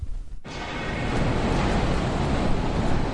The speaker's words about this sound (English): Well, um, why don't you sit back for a few minutes and enjoy today's audio diary of New York City.